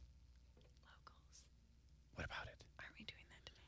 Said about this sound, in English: Why are you whispering? You when you whisper in the microphone, we can Sorry. still hear you.